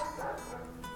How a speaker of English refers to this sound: I'm so sorry about the background dogs barking, but I can't help it.